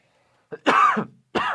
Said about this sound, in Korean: 야, 원래 제가 기침은 안 했는데 오늘 갑자기 기침이 나네요.